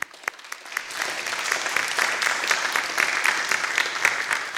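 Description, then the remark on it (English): A crowd breaks into applause in gratitude for the birth of a family's baby daughter, starting with a few scattered claps and quickly swelling into steady, dense clapping that holds at a moderate level throughout, with no talking. “So goodness gracious, I think we need a, a, a round of applause and gratitude.”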